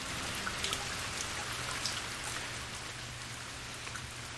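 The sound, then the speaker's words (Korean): Steady rain falls at night in a continuous hiss, with scattered drops pattering on a hard surface and a low rumble underneath. No one speaks. “그 사람도 하루 이틀 찾아오는 날이 점점 줄어들었고 비가 오던 그날 밤 그 사람은 술이 취한 채 다시 저를 찾아왔습니다.”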